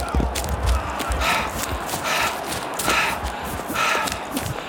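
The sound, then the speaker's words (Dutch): Heavy, rhythmic panting breaths with a steady patter of quick running footsteps underneath, as a person runs at a football match towards the goalkeeper. “Even mijn veters vasttrekken en even rennen.”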